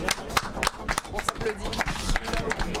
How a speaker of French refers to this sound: On ne coupe, on n'oublie pas l'équipe, allez je vous applaudis quand même, je lâche mon micro une seconde